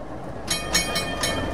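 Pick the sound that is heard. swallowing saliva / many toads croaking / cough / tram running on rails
tram running on rails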